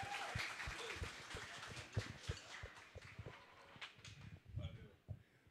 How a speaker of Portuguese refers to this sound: Uma salva de palmas para Dilson Stein. Uhul!